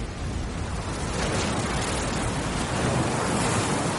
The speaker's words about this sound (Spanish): De día, las olas baten la costa de Rocadragón.